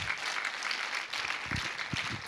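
An audience breaks into sustained applause in honour of God: a dense, steady wash of many hands clapping at once, with a few scattered voices and low thumps mixed into the crowd noise.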